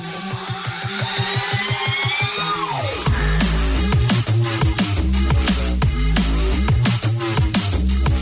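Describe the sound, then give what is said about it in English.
A wormy, wobbling bass music track plays loud, moving from a rhythmic pulsing build into a heavy drop of squelchy, twisting bass over fast, punchy drums. No one speaks. “they're both wormy tunes, and they've both got great elements”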